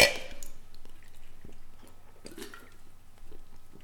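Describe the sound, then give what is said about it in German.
A bright clink of glasses touching in a birthday toast to Sesamstraße opens the moment, followed by quiet sipping and soft wet swallowing sounds with small clicks and gulps, no one speaking. “Darauf erstmal, ja, hier, äh, Sesamstraße, Prost. Ja, wir feiern Geburtstag. Mal Prost. anstoßen.”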